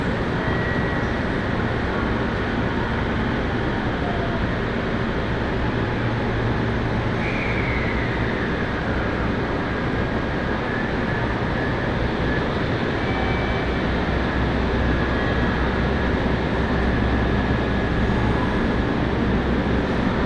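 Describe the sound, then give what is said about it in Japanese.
A steady, loud rumble of a local passenger train on Japan's Tokaido Main Line between Atsuta, Nagoya and Ogaki, bound for Gifu and stopping at all stations, rolling along the rails with a continuous low-frequency drone and faint squeals rising now and then. “耳で楽しむ鉄道旅 東海道本線 熱田→名古屋→大垣”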